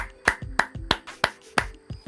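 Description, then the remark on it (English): A steady run of about six sharp hand claps, evenly spaced roughly three per second, each a crisp bright smack with a short tail, and no talking. “Let me go ahead and clap it up for y'all one time.”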